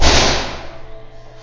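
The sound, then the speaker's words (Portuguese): A single loud door slam right at the start, a sharp heavy bang that rings out and fades over about a second. No one speaks. “A porta ali até bateu agora, deu pra escutar”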